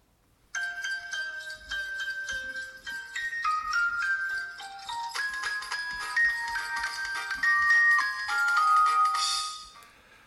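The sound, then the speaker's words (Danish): Christmas music: a bright, tinkling instrumental melody of bell-like tones that steps along steadily, growing fuller and busier before stopping after about nine seconds, with no voices. “Så skal jeg finde noget julemusik til dig.”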